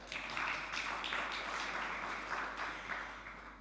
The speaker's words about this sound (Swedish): Eh, jag förväntar mig att ni regelbundet tackar våra tekniker för det fantastiska jobb de gör där nere. De förtjänar en applåd. Det kan vi göra nu. Varsågoda.